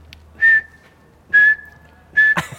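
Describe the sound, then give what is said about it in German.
A person whistles three short, sharp blasts in an even rhythm, imitating a coach's whistle at a professional football training session, each whistle signalling a jackknife sit-up. Each blast is loud and breathy, with brief silences between them. “Jetzt machen wir eine Pause kurz, weil es pfeift immer noch.”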